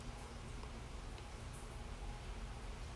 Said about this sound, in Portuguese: E nossa, começou um chuvão, ó, tá ouvindo? Acho que só quem, quem tá de fone tá ouvindo, tá uma delícia.